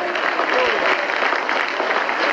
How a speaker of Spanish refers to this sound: Dele fuerte ese aplauso al Señor.